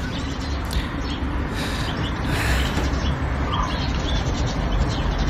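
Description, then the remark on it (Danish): Small sparrow-like birds chirp and chatter softly in the foreground, their brief calls scattered through a steady, dense outdoor rush of background noise. “Den vakse lytter eller øh, gætte mester i studiet vil jo i hvert fald notere sig, at der sidder nogen fra spurvefamilien og snakker lidt i forgrunden.”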